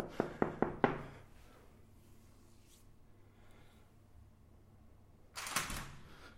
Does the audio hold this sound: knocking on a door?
yes